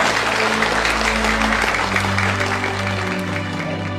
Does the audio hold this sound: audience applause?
yes